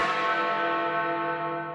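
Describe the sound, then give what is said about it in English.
A single large bell rings out loudly, its rich metallic overtones sustaining and slowly fading over nearly two seconds with no other sounds. “The Bell Cleaner.”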